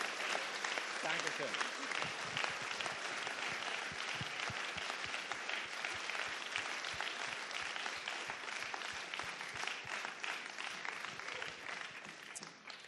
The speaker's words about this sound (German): Gebt diesen beiden Leuten nochmal einen Applaus. Danke.